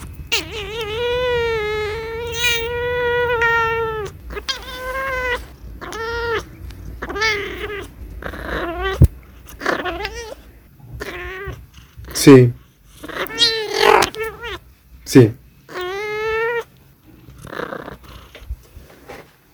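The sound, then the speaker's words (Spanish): A domestic pet cat meows over and over, starting with a long drawn-out yowl and then a string of shorter, insistent meows, with a person briefly speaking between them. “Bueno, antes de irnos, aquí les voy a dejar un comentario que tiene mi gata para hacer.”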